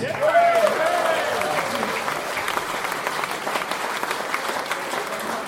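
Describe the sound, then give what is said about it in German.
A crowd claps steadily in sustained applause for a band at a concert, dense and fairly loud throughout, with a brief whistle or cheer rising near the start before the clapping continues evenly. “Und ein schöner großer Applaus zu … und seiner fantastischen Band.”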